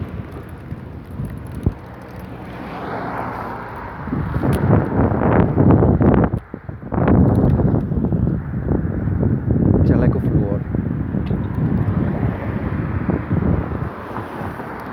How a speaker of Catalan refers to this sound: tren en túnel.